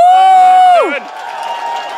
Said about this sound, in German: Einen riesen, riesengroßen Applaus bitte